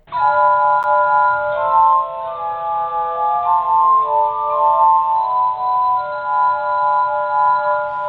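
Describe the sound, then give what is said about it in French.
A glass harmonica plays sustained, shimmering tones that overlap into soft chords, the notes shifting slowly and ringing steadily without pause. No one speaks. “Est-ce qu'en lui ajoutant un clavier, demeure-t-il encore un harmonica de verre”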